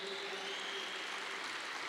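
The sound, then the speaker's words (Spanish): A crowd claps steadily and densely without a break, applauding to glorify Jesus, a sustained wash of applause that holds an even loudness throughout, with no voices heard. “Dile, Padre, glorifica a Jesús a través de este aplauso.”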